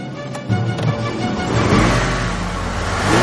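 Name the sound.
car engine accelerating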